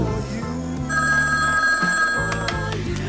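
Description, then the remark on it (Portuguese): In a commercial for dating by phone, a telephone rings with a bright, steady electronic tone that starts partway in and holds, set over a bed of music with low rhythmic notes; no one speaks. “Sabe de quem é o telefonema que ela está esperando? O seu.”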